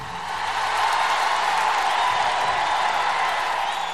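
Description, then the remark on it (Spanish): A loud, sustained ovation of dense applause and crowd noise for the people behind a series on the world of fighting bulls and the countryside during lockdown, a steady wash of clapping that fills the full four seconds without pause, with no distinct voices standing out. “Así que una ovación bien fuerte para todos los que han trabajado en esta idea y que siguen ofreciéndonos las aventuras del campo bravo durante este confinamiento.”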